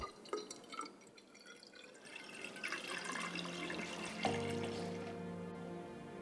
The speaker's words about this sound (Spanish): A continuación, mezclan los tintes y añaden agua a un cilindro.